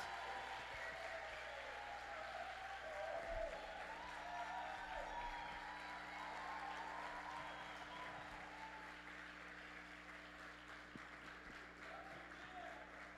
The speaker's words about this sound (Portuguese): Então eu queria chamar aqui à frente todos os servos que estiveram aqui servindo. Eu queria que a igreja recebesse esses irmãos com a salva de palmas.